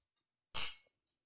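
A single bright clink of glasses touching in a toast, fairly loud, with a short ringing tail that fades within a fraction of a second. No one speaks.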